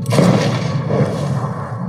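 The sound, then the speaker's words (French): A heavy sniper rifle shot from a video game, fired from the ramparts by a character wearing night-vision goggles and hitting a man in the head. One booming crack is followed by a low, rumbling tail that fades slowly over about two seconds, with no one talking. “Il prend son sniper, il vise, et là.”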